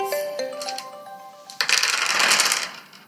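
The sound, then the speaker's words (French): Story dice with drawings on them clicking and clinking together, then tumbling out in a loud, scattering rattle across a tabletop that settles after a second, with no talking. “est-ce que tu accepterais de jeter les dés dessinés euh, qui sont devant toi et surtout euh, me dire eh bien, ce que cela va t'inspirer”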